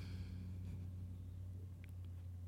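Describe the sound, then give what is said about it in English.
A big old truck rolls by near the listeners with a deep, steady engine rumble that holds for a few seconds, muffled, with no one speaking. “Big, big old truck rolling near y'all.”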